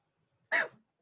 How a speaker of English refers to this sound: still getting over this cold everybody so every once in a while i might cough